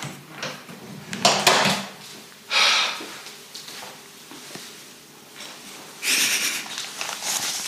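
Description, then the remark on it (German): Household handling noises: shuffling, a creak and a few soft knocks, with a short scraping burst and another rustle later, consistent with a kitchen door being pushed shut. No one speaks. “kurz die Küchentür zu machen?”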